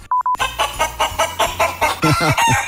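A rooster calls in a rapid run of loud, harsh bursts, ending in a few strained, rising notes, just after three short electronic beeps.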